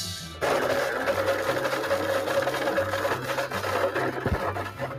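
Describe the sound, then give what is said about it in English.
A blender kicks on abruptly in a studio and runs loudly and steadily, a churning motor whir with a buzzing tone and slight wavering pitch as the contents spin, with no voices over it. “What's he blending? I'm blending it right here.”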